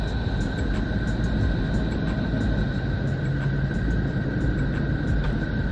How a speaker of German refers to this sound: Keine U-Bahn, die einfährt, sondern Neptun, der äußerste Planet unseres Sonnensystems.